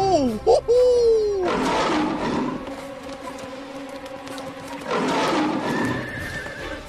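A horse lets out a loud whinny at the start, its shrill cry sweeping downward, followed by two stretches of harsh, noisy roaring and commotion.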